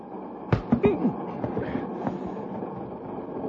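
A moving passenger train rumbles steadily on the rails, with a few sharp metallic clacks and knocks near the start over a continuous low roar, moderately loud.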